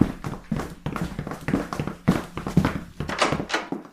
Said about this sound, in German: Wir haben die Schritte doch alle gehört, oder? Ja, ich habe sie ja auch gehört. Aber hier ist niemand.